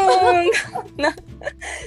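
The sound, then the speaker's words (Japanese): A person whimpers softly, a thin, wavering voiced whine broken by shaky, breathy catches, as if fighting back tears, fairly clear for about two seconds. “泣くだろうなって思ってたけど泣いていいですよもうこれゆるラジオということなんで、うん、涙も合わせてお届けしましょう”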